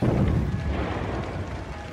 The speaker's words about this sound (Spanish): ¿Ha oído? Sí. Parecen disparos. Son disparos. Vienen del lado del río.